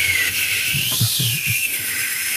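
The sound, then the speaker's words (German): A voice imitates a whistling Antarctic wind, a steady breathy hiss with a thin high whistling tone, over low murmuring vocal sounds, fairly loud for a couple of seconds. “Na, die pfeifen die ganze Zeit. Na, der Wind eigentlich, aber also.”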